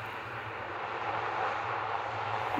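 propeller plane engine

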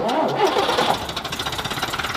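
bus engine starting

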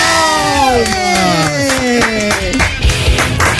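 studio applause and cheering

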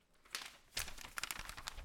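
paper crinkling

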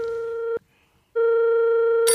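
telephone ringing

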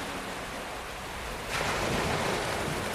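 beach waves and surf

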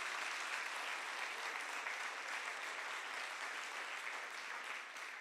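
audience applause

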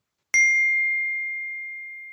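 glasses clinking

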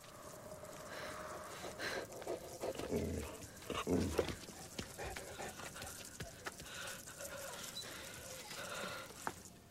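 dog

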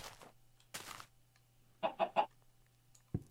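chickens clucking

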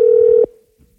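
telephone call ringing tone

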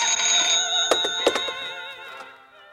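telephone bell ringing

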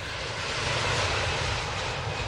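airplane engine flying overhead

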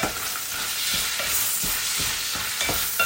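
bacon sizzling

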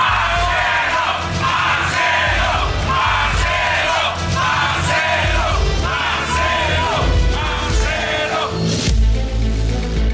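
crowd shouting in support

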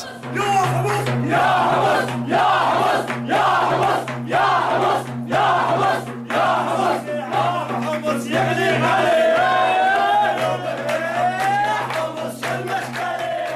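protest crowd chanting

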